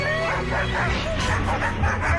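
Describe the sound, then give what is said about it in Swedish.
Dogs barking in a rapid, continuous flurry of overlapping woofs and yips, fairly loud, with no pause across the stretch. “Men pengarna vaktades av hundar”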